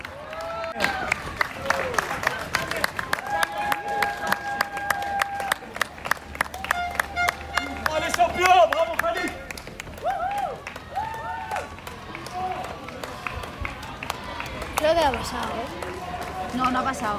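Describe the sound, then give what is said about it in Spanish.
A crowd of spectators applauds marathon runners, cheering on the last stragglers of the race, with brisk, uneven clapping that goes on throughout, while scattered voices call out and cheer over the rhythm. “La gente aplaude animando a, los rezagados que lo necesitan, ¿eh?”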